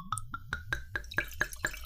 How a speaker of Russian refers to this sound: Если честно, льется полупрозрачная жидкость в бокал. Не знаю, насколько вам видно. Абсолютно легкая. Если первая действительно была гораздо более соломенная, Э, здесь цвет гораздо светлее.